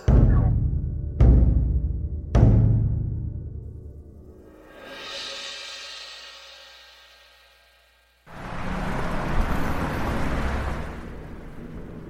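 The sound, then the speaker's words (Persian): Three sharp thuds in quick succession, then a car engine rises and pulls away, heading for a laboratory, fading out before a steady wash of broad noise takes over. “ما کارمون تمومه شاه ماهیمون بیهوش و آماده انتقال به آزمایشگاه خیلی خوب بذارید تو ماشین حرکت کنید سمت مقصد”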